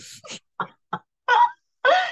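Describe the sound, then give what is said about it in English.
A male pet cat on the floor retching up a furball: a few short, breathy hacking bursts followed by two longer, harsher gagging heaves, fairly loud, with brief silences between. “I put him on the floor and he's coughed up a firm so he's all right.”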